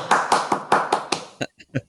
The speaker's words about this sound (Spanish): ¿Fueron aplausos o, o qué fue?